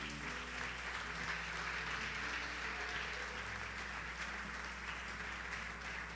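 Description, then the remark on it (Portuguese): A large crowd applauds loudly and steadily for several seconds, a dense wash of clapping with faint low musical tones humming underneath. “Aplauda Ele bem forte.”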